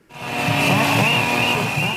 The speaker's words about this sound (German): Trillerpfeifen, Kettensägenlärm und kämpferische Reden in Potsdam vor dem Hotel, in dem die Tarifverhandlungen für den öffentlichen Dienst der Länder in die entscheidende Phase einsteigen.